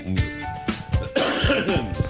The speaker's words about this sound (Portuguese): Outra vez? Eu ia dizer, é de aproveitar agora que não estou com tosse. Uh, no entanto, aí veio ela. A grande porca.